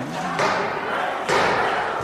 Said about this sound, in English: And then there was a sound I will never forget the sound of pounding on the door like a battering